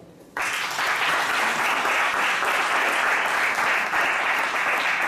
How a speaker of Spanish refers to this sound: Un aplauso.